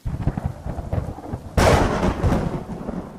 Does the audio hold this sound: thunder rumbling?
yes